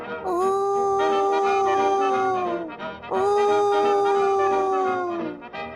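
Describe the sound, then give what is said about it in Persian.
A wolf howls and whines twice, loud: two long, steady wailing notes of about two and a half seconds each, separated by a short pause, each sagging slightly in pitch as it fades. “و به همین خاطر گرگه شروع کرد به ناله کردن و زوزه کشیدن”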